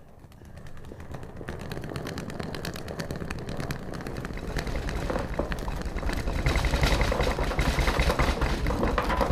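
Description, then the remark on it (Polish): Suitcase wheels rattle steadily over the rough pavement of Lubelska street, going from the central station, a dense stream of rapid clattering clicks with a low rumble underneath, growing slightly louder as it goes. No one speaks. “Niech pani kiedyś przejedzie lubelską z dworca centrum z walizką na kółkach.”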